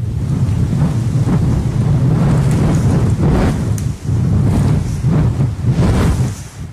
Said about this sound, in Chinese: 我喜欢听风吹过的声音。